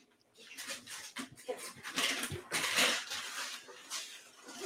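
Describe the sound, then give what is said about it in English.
A dog whimpers and whines in a string of soft, high-pitched bursts that rise and fall for several seconds. It is fairly quiet and there is no talking. “sorry, my dog is.”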